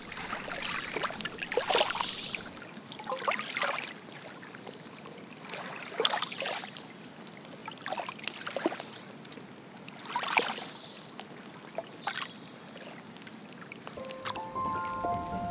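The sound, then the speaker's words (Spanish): Gentle water laps against a lake shore in soft, irregular splashes every couple of seconds, calm, with no voices present. “Visualiza que estás caminando en la orilla del lago.”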